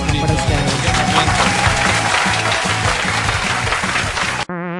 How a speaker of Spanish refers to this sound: Un aplauso para ella, por favor.